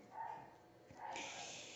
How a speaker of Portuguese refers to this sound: Mas não é que tem cachorro aqui, tá? É vizinhos. Não tem nada a ver com aqui.